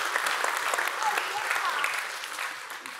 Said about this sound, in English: a round of applause for that near miracle.